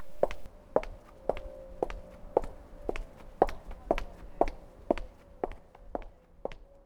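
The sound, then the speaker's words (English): Steady footsteps on pavement on a residential street in London in the evening, about a dozen crisp heel strikes at an even walking pace, over a low, quiet street hum with no voices. “That's the sound of my footsteps on the pavement in London.”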